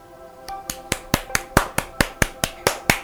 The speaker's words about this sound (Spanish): Dadme vuestro aplauso si os ha gustado.